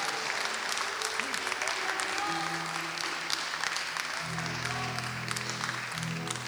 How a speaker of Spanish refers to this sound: Y dale un fuerte aplauso a nuestro Señor en esta tarde.